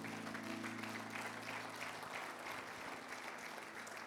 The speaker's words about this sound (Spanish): Amén. Sí, apláudele al Señor.